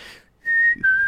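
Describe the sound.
Two clear whistled notes, the second slightly lower than the first, with a brief dip between them, a person whistling in imitation of a classic two-note bird call interval.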